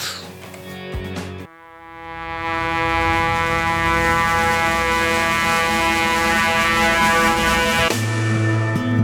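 A sustained, swelling horn-like wind instrument tone opens a song, rich and droning, holding loud and steady for several seconds with no voices.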